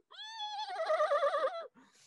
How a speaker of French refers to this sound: Puis tu vois le cheval de Rictavio, euh, de Von Richten, qui prend peur d'un coup.